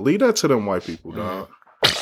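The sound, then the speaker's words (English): A man talks casually, then a single sharp sneeze bursts out right at the end, loud, cutting off after a brief hum. “Bless you, Bless you man.”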